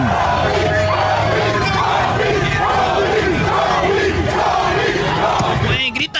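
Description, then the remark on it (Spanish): A large crowd of Lakers fans celebrating the championship in the streets chants a repeated two-syllable call, heard by some as "doggy" and by others as "Kobe," in a loud, steady rhythm that fills the whole stretch before cutting off abruptly at the end. “Pueden, pueden escuchar que dicen doggy, doggy, no, nada más no digan que...”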